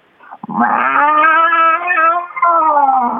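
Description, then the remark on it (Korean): A person imitates an angry cat, voicing a drawn-out, wailing yowl, loud, with a short rising attack, a sustained tonal cry, a brief dip, then a final held wail. “아, 이제 고양이 화나는 소리.”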